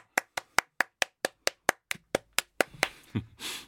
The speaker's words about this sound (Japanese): みんな楽しそうに拍手するね